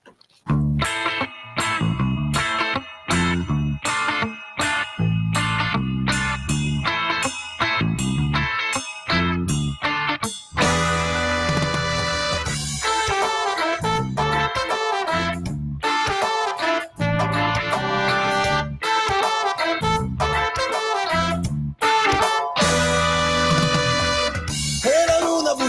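A loud music intro opens with choppy, stuttering chords in a tight rhythm, then a full band with distorted, effects-laden guitars kicks in and plays on without vocals.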